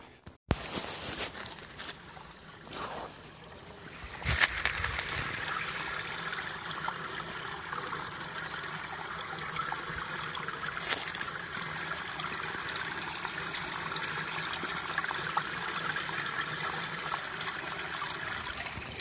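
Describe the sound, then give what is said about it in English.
An icy waterfall in snow-covered woods on a chilly, sunny January day rushes and splashes steadily for the whole stretch, a dense continuous wash of falling water at moderate loudness, with no voices over it. “That is the sound of an icy waterfall.”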